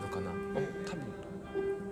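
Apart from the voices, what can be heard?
bell ringing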